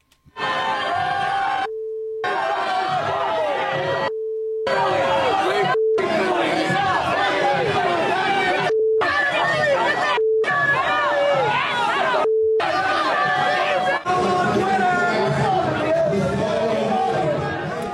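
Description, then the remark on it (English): A loud, dense crowd of protesters shouting and yelling over one another, in the faces of people leaving an event along a crowded sidewalk, interrupted about six times by steady censor beep tones that briefly cut through the din. “This was from a video with uh, people who are leaving the event, and there is barely enough room for them to walk down the sidewalk, and people are in their faces. And yes, it had a lot of beeps in it.”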